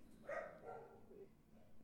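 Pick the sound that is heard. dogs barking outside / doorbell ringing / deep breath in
dogs barking outside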